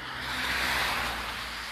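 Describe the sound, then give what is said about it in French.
A large truck rolls past, its broad rushing roar swelling to a peak and easing off over a steady low engine rumble. No one speaks. “il était gros ce camion.”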